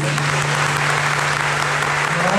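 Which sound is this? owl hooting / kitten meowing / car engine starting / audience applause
audience applause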